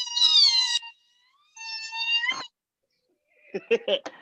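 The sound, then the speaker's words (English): Women let out a high-pitched "skee-wee" sorority call: two long, shrill, warbling squeals with a brief pause between, then a few short choppy vocal bursts. “Can I get a, can I get a can I get a ski week from you ladies?”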